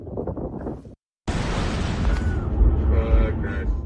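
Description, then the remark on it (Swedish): After a brief murmur of voices and a moment of silence, a huge, roaring blast erupts in Beirut, the Lebanese capital, and keeps rumbling with deep, booming low end, loud, as faint voices sound beneath it. “Det var en massive explosion.”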